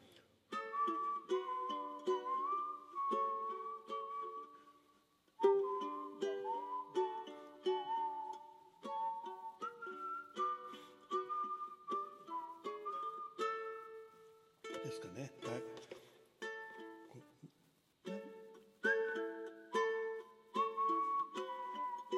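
A practice performance of a song melody played on a solo instrument with sustained, wavering tones, moving phrase by phrase with short pauses between lines, moderately loud with no talking.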